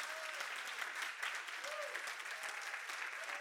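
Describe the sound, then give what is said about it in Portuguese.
A church audience applauds loudly for Jesus, a dense, continuous wash of many hands clapping at an even loudness throughout, with a few faint voices and whistles poking through the noise. “Pode aplaudir bem forte se é para Jesus.”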